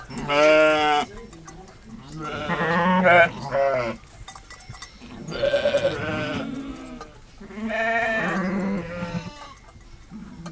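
Sheep bleat in several long, wavering calls that come in overlapping bursts with short pauses between them, fairly loud, over a faint outdoor background, on the plateaus of Aubrac; from a 1997 sound postcard by Jean Palandre.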